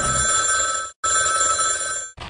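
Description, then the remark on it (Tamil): A telephone rings on an outgoing call to the Krishnagiri district Collector's office: two long ring bursts separated by a short silent break, with a third ring just starting at the end. The ringing is steady, moderately loud, and there is no talking. “so அதுக்காக இவங்களுக்காக நம்ம கால் பண்ணி ஃபோன் மூலிமா நம்மளுடைய பாராட்டை தெரிவித்தோம் அந்த ஃபோன் கான்வர்சேஷன் இப்போ நம்ம கேட்கலாம்”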